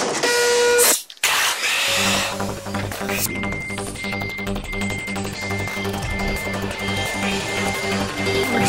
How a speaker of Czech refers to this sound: zvuky, zvuky tiskárny jsou zase v modě